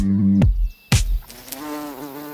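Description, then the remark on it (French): A bumblebee buzzes in a low, wavering drone whose pitch dips and rises, broken early on by two sharp thumps before the buzzing steadies again. “Voici d'abord, dit Materlinck, les plus proches parents de nos abeilles domestiques, les bourdons, hirsutes et trapus, parfois minuscules, presque toujours énormes”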